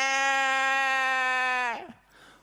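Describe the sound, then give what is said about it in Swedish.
A voice imitates a whining baby with one sustained, nasal, steady-pitched cry that holds for well over a second, then dips and trails off with a short breathy tail. “Det är som den lilla bebisen som ligger där och hela tiden...”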